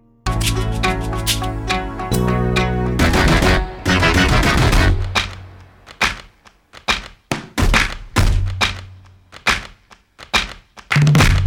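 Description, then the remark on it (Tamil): A song tune from the film Aravindhan plays on its own: sustained melodic notes open the piece, then it shifts into punchy, rhythmic percussive hits with short tonal bursts, loud. “அந்த படத்தோட பேர் வந்து என்னென்னு பார்த்தீங்கன்னா அரவிந்தன் அந்த அதில் வந்துட்டு ஒரு சாங் இருக்கும் அந்த சாங்கில் வர டியூன் மட்டும் கேளுங்களேன்”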